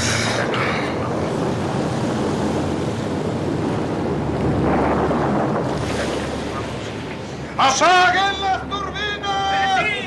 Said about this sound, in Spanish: ¿Oyes? Es un aire muy extraño. El mar está enloqueciendo. He hecho muchos viajes en este barco y nunca había visto olas tan violentas.